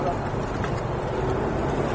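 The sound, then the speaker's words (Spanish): A large TransMilenio rapid transit bus rumbles by on the street on a breezy day, a loud, steady low engine roar with wind-like noise that fills the whole moment without fading, while a voice murmurs faintly underneath. “Allá viene Transmilenio allá.”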